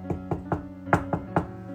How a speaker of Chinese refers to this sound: 就被一阵急促的敲门声啊给吵醒了。